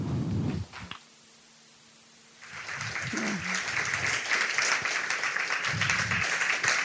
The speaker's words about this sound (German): Äh, unsere erste Nationalratsabgeordnete, die wir hier haben. Ich freue mich ganz besonders mit einem kräftigen, kräftigen Applaus begrüßt Sigi Mauer.